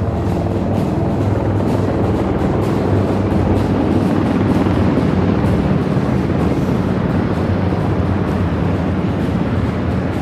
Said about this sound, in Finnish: Näin jyrisevät 150 metrin korkeudessa tästä kaupungin talon vastaanottokorokkeen yli lentävät helikopterit kaiken kaikkiaan kymmenen siis.